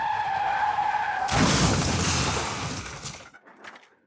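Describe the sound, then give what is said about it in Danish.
Tires screech in a long, steady squeal as a car on a road brakes hard, then a loud crunching impact bursts out as it slams into another car, followed by scattered tinkling debris settling. No voices. “Man kan ikke se vejen fra skolegården, men man kan tydeligt høre en rode, som balrer, og en bil, som bremser hårdt op og rammer ind i en anden bil.”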